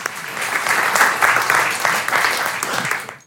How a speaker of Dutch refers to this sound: Mag ik een heel warm applaus